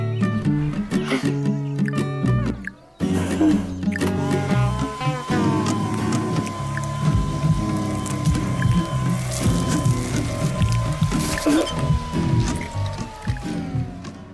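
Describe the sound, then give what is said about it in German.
Cartoon sound effects of a chocolate Easter bunny melting under a hair dryer, from an animated film produced by the development organisation Erklärung von Bern: a loud, steady whirring drone with a slowly falling whine, layered with squishy, dripping goo sounds after a brief pause near the start. “So tönt es im Trickfilm, wenn ein Osterhase aus Schokolade mit einem Föhn einen Selbstmordversuch begeht.”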